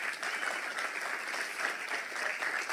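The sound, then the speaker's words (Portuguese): A big round of applause from a crowd, dense and steady throughout, a continuous crackle of many hands clapping at once with no voices standing out. “Eu acho que isso merece uma salva de palmas enormes, Jesus.”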